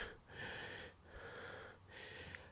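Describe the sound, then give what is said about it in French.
Heavy, laboured breathing from a person who has tested positive and finds breathing difficult: three loud, raspy breaths in steady succession, each a strained, slightly wheezy rush of air with brief pauses between, and no talking. “Je sens que la respiration, c'est compliqué.”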